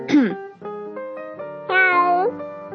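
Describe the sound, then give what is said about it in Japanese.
A person imitates a cat's meow convincingly: a rising-falling yowl, then a few shorter mewing calls and a long, bright drawn-out meow near the end, clear with no other sounds. “いや、マジで真似しようと思ったらね、猫のマジ声できますよ。”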